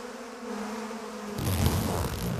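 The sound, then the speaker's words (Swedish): A steady hum of honeybees buzzing around a hive as a beekeeper looks into it to check on the bees, a low droning tone that suddenly swells into a louder, denser buzz as the swarm grows busy. “fick kika in i kupan och, och, och titta hur det står till med de här bina.”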